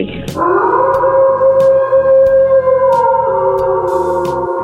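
A single long wolf howl sound effect rings out loud, holding a steady tone that sags slightly at the end, with a pulsing low beat thumping underneath.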